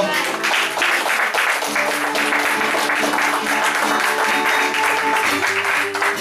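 A crowd applauds steadily for several seconds, a dense, sustained wash of clapping from many people applauding God in the name of Jesus, with a sustained musical tone underneath.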